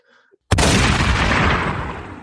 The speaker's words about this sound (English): You're just queuing up a gunshot, aren't you?